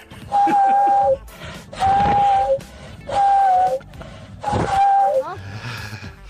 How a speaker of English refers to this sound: I didn't know this could happen, but walruses can whistle. Here is one of them in action.